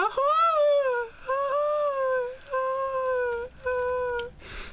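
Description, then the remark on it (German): A voice, altered with a voice-effect device, imitates a loud foghorn with four long, loud, droning hoots in a row, each held steadily with a slight bend in pitch and short pauses between them, echoing in a hall. “um ein lautes Nebelhorn erklingen zu lassen und meine Stimme zu verfremden und so.”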